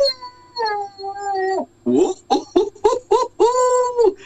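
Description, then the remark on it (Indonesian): A storyteller imitates a tortoise crying: a long, wavering wail followed by a string of short, sobbing bursts, fairly loud with no other sounds around it. “gajahnya memang sibuk sampai gajah sendiri bingung loh melihat kura-kura kok pagi-pagi bangun tidur nangis”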